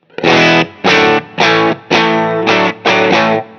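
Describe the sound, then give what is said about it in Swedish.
A slightly overdriven electric guitar tone from a Telecaster played through a Universal Audio OX Amp Top Box with plate reverb: six loud, sustained chord stabs in a steady rhythm, each ringing out briefly into a smooth reverb tail before the next; fairly clean but breaking up when played hard. “Så, så att eh, vi har liksom ett, eh, ett ljud som är hyfsat rent men ändå spricker då man, då man tar i.”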